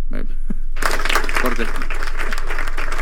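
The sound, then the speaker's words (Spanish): A burst of clapping starts abruptly after a brief spoken moment and continues as dense, steady applause from a small group, fairly loud, with voices underneath. “Gracias, gracias por los ahí aplausos.”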